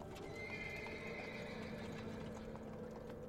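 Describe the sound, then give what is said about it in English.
Horse hooves clip-clop steadily from a horse-drawn carriage crossing the River Thames, over a dense rumbling background. A drawn-out whinny rises above the hoofbeats early on. “Over the next hour, as the carriage clip clopped over the River Thames, they kissed and cuddled as James regaled Hannah with false hopes of what their new life together would be.”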